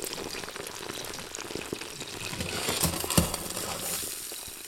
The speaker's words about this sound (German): Oh nein, nein, nein, nein, nein. Es kocht schon über.